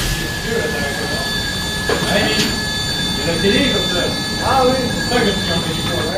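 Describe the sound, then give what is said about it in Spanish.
A loud, steady roar of ventilation pipes in underground galleries fills the whole clip, broad and rushing with a few thin whining tones on top, while voices murmur underneath. “subterráneas y en medio del ruido intenso de las tuberías de ventilación, obreros y científicos observan las características de la roca”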